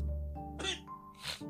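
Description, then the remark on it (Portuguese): Two sharp sneezes burst out about half a second apart, each a quick explosive blast of breath over a steady low background hum. “Sistema respiratório tá Saúde.”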